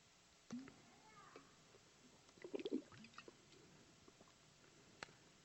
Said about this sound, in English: I'll take a drink of water quick.